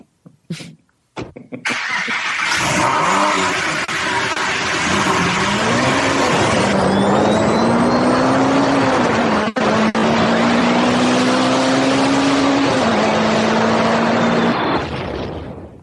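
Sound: car engine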